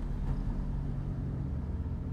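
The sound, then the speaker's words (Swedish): A steady, low car engine rumble idles as the driver stops the car on a road, with no voices. The deep hum stays even and continuous throughout. “Mr Spicer stannar bilen och de berättar ivrigt om det de just bevittnat vid sjön.”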